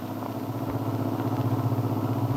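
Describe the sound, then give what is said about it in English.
A steady, rumbling car engine drones continuously, with a low throbbing hum that holds even, as the car is driven toward a farm a few miles out of town. “Now they are in their car heading toward the Descari Farm a few miles out of town.”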